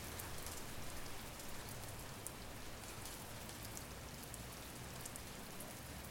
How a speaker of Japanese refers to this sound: 雨音が時折窓ガラスを打ち鳴らすパチパチと遠くの空の匂いを地上に運びつつそれらは僕らの世界から温度と色を奪い取っていった